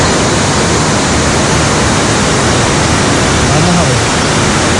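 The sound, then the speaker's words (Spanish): A dense, steady roar of torrential rain pouring down hard, loud, with no breaks across the whole stretch, drumming on everything at once. “Puñal, esa es la lluvia, lloviendo en puñal.”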